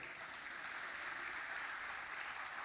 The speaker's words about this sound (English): He goes on in verse 17 and says, For this, that's right, you can clap to that, that's good.